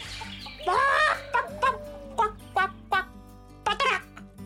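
Farmyard poultry, chickens, geese and turkeys, cackle and cluck in a yard as a young woman feeds them yellow corn: a long opening squawk, then a string of short, irregular calls, with no voices.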